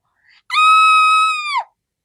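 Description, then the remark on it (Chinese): A single loud, high-pitched scream of people scattering and fleeing holds a steady pitch for just over a second, then drops off abruptly. A faint, brief sound comes just before it, and there is no talking. “你听到了吧？人们就像这样尖叫着四散逃开了，那场面真尴尬呀！”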